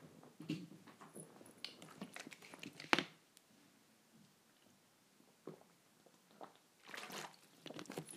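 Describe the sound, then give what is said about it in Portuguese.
Quiet sounds of someone drinking water: wet sips and gulps with soft swallowing, broken by a sharp click midway, then a few more slurping swallows near the end. “Ai, tenho que beber água”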